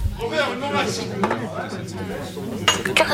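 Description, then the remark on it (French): Busy bar ambience after work: a murmur of overlapping voices, including two men, with dishes and glasses clinking now and then, several sharp clinks cutting through the chatter near the end. “Et c'est dans un bar, à la sortie du travail, qu'elle entendit les deux hommes.”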